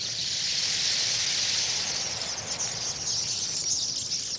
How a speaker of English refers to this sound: I have seen a million flamingos on the lakes of East Africa, and as many seabirds on the cliffs of the Alaska Pribilofs but for sheer drama, the tornadoes of tree swallows eclipsed any other avian spectacle I have ever seen.